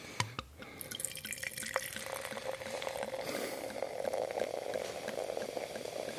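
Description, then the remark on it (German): Sparkling wine pours slowly and steadily into a glass, a continuous trickle with fizzy crackling and a rising tone as the glass fills, clear with no talking. “Wenn man langsam genug laufen lässt, dann klingt es so, als würde man sich die ganze Flasche direkt ins Glas schütten.”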